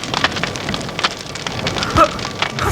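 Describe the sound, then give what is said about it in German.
A dense, steady crackling and hissing of a castle tower burning, its exit in flames, with scattered sharp pops and one louder snap near the end. No voices. “Feuer! Der Ausgang steht in Flammen!”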